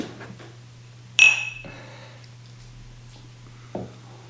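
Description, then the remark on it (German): A single bright clink of whisky glasses touching in a toast, ringing briefly before fading, followed a couple of seconds later by a softer knock, over a steady low hum with no talking. “Ja, also von daher, Prost! Prost!”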